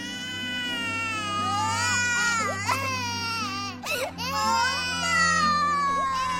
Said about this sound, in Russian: Младенец отпихнул ногами одеяло и надрывно плакал, размахивая в воздухе ручками и ножками, а четырехлетний ребенок сидел на постели и со слезами звал мать.